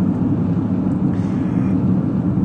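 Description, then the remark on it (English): A steady, muffled low rumble of road traffic heard from the driver's seat of a car, with traffic all around: a continuous engine and road drone with no distinct passing cars and no voices. “I was I was thinking while I'm sitting here in the driver's seat of my car with various traffic going on around me in front of me and everywhere else”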